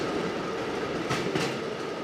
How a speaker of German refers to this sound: Dresine, so heißt das Ding, auf dem ich fahre. Es ist eine Art Eisenbahnfahrrad. Zwei Räder hintereinander, rechts ein drittes Rad an einem Ausleger. Das fährt auf dem zweiten Gleis, damit man nicht umfällt.